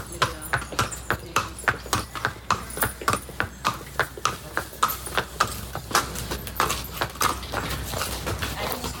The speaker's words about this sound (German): wie gerade geht so ein Pferd, was für einen Schritt ja. zeigt er, dreht er sich gut hier um. Lassen ihn mal auf uns zukommen und entlang